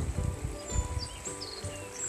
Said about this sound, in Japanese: 今日も朝散歩の途中で録音しています川の音とか鳥のさえずりとか聞きながらこういう風に録音していると